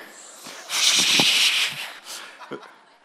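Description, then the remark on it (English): A shaken soda can is cracked open, releasing a loud, sharp burst of fizzing hiss that lasts about a second before tapering off, with faint voices murmuring in the background. “You know what's going to happen when I open this can?”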